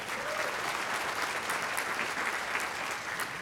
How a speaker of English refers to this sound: Well, thank you for your service. So um, last year, thank you. You can clap that.